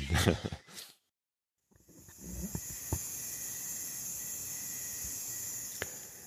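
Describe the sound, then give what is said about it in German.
Crickets chirp steadily in the background outdoors in the greenery, a continuous high, thin trill that keeps going after a few opening thumps and a short pause, with a soft click now and then. “Ich weiß nicht, ob auf der Aufnahme jetzt das Grillenzirpen im Hintergrund zu hören ist.”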